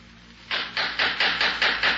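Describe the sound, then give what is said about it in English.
A rapid series of about seven sharp knocks at a door late at night, evenly spaced and fairly loud, beginning after a brief quiet moment with no voices. “Someone at the door this time of the night?”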